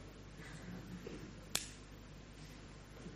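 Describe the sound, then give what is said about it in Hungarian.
A single sharp click of a lighter being struck to light a small flame, crisp, standing out once against a low, steady background hum with no talking. “Gyújtsunk egy tüzet. Ez egy kis láng, de hogyha beledobunk sok mindent a tűzbe, akkor égni fog.”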